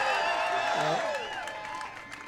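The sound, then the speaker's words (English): A large crowd cheers and applauds steadily for the governor of Florida, a dense wash of many voices shouting and hands clapping, gradually easing off toward the end. “I mean, this crowd is incredible.”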